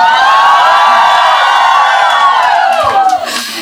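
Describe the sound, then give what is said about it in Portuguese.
A live audience cheers loudly and steadily, a dense wash of many voices with high whoops and shouts rising over the roar, which eases slightly toward the end. “E se você está ouvindo isso agora no Spotify, você vai entender que tem público.”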